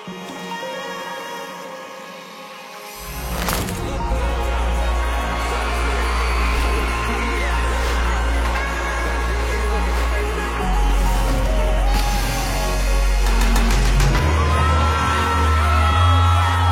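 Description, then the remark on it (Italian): A large concert crowd roars, cheers and shouts, surging loudly after a quieter opening few seconds, with deep booming bass music throbbing beneath the sustained din. “È un muro di gente eh, che fa effetto comunque, c'è una roba mm, grossa, cioè, speriamo sia la prima di tante.”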